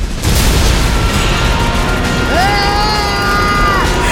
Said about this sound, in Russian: Закончили наши пушки и Катюши палить